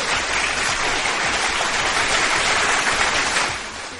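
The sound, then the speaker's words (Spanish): Steady, dense applause from many hands, a bright crackling wash of clapping that holds evenly for about three seconds before easing off at the end. No voices are heard. Applause in the RTW radio booth for a visitor who came from Celaya. “Exactamente, aplausos enormes que vino a visitarnos desde Celaya y ya cumplió.”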